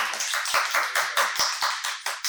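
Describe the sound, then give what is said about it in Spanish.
An audience bursts into applause, many hands clapping in a dense, steady patter with sharp individual claps popping through, sustained and fairly loud throughout with no voices. “Un aplauso para Un aplauso”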